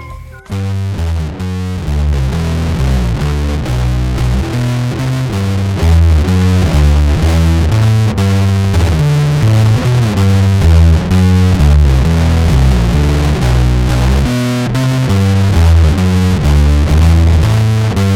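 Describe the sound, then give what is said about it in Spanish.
An electric bass guitar played through a Big Move effects pedal, giving a gritty, distorted tone. Steady, rhythmic low notes with thick overtones keep going at an even loudness, with no talking over them. “Eh, siento que es, o sea, la verdad tendría que escuchar limpio, pero siento que en reacción al Big Move reaccionó mejor el, Precision.”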